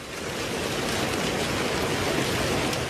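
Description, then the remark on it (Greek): Lemon-sized hailstones, each at least 5 cm across, pour down on Kryoneri near Kalavryta, Greece, striking hard surfaces in a dense, continuous clatter, steady for the whole stretch, blending into a loud rain-like roar with no voices. “Χαλάζι σε σχήμα λεμονιού, χτυπά τα καλάβρητα.”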